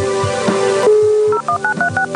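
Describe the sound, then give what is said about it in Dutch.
A dial-up modem dials out as Siri contacts the network: a steady dial tone gives way to a quick run of about six clipped, evenly paced touch-tone beeps, each a paired high pitch, loud and clear with no talking. “Now, the answer takes longer because Siri needs to contact the network using a modem.”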